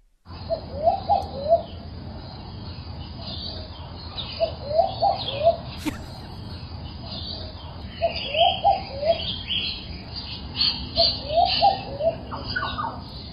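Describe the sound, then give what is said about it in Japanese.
Tropical birds in Cairns, Australia call in repeated clusters of short hooting notes, a dove-like cooing phrase recurring every few seconds over a dense background of chirps and insect hum, recorded outdoors. “録音したものをお送りますということですから、ちょっと皆さんで聞いてみましょうか、はい、ではではオーストラリアのケアンズの鳥です”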